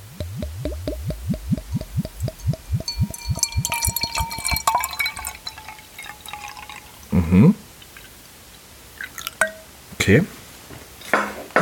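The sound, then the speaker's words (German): A dark-coloured drink glugs quickly from a bottle into a glass, a rapid run of rising gurgles for several seconds, followed by a few sharp clinks and knocks of glass. “So, ich lasse das alles ungefiltert drin, ob ich den Sound vom Einschütten.”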